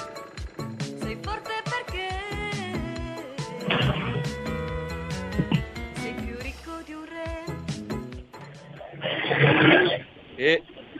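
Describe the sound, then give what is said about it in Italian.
The speaker's dog barks in a couple of loud, rough bursts, one early and a longer one near the end, over a busy melodic background of music. “Ecco il ruggito del mio cane.”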